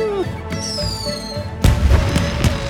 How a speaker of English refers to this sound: Suddenly, the night sky was lit up by the flashes of colorful exploding fireworks.